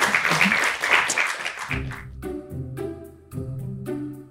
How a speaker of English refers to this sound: How about a, a round, round of applause. applause for them? For them.